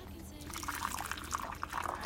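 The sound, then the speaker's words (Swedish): Tea is poured steadily into a cup at a home in Sydney, a continuous splashing trickle with bright little gurgles, fairly quiet, lasting a couple of seconds. “så häller jag upp ännu en kopp te.”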